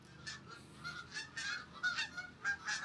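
geese honking

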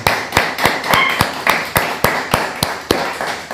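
applause

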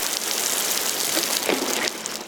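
rain falling

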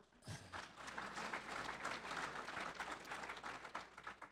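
audience applause

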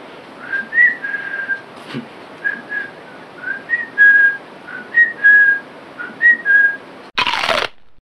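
human whistling a tune

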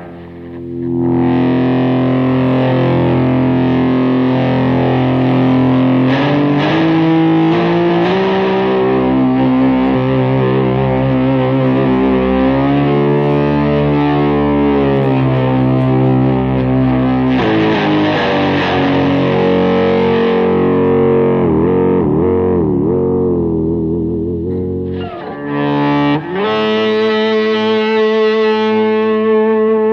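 electric guitar playing

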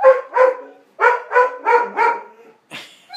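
dog barking

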